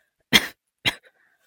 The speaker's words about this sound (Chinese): 一只白皙清瘦的手缓缓自马车内伸了出来，人还未见，那声低沉的咳嗽声又在传出。